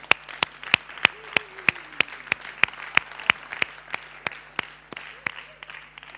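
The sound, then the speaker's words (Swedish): Applause for three boys coming forward to help the speaker, in a steady, even rhythm, like hands clapping together in time, about twenty sharp claps over several seconds, with a faint voice and a low hum underneath. “Ska vi ge dem en applåd när de kommer fram?”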